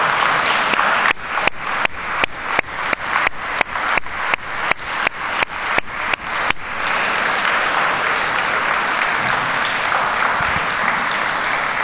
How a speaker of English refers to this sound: Men, ladies, those of you who have served in our country, would you just stand up? We want to, you know, clap for you and let you know that we appreciate you so much. Stand up, yes.